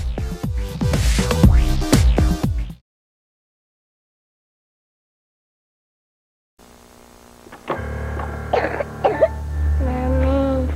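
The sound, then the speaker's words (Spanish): A child coughs several times in quick, harsh bursts, followed by a few seconds of silence and then other sounds. “La tos que más le duele y angustia es la de sus niños.”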